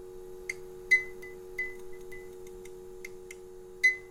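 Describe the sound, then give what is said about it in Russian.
A light bulb in a small hall crackles with irregular sharp clicks and faint snaps, some ringing briefly, over a steady low electrical hum. Quiet, with no voices. “Нет, слышу, как лампочка трещит.”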